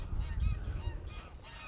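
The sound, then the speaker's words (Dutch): Several Canada geese honk repeatedly, their calls overlapping against a steady low outdoor rumble. “Ik zie ook Canadese ganzen.”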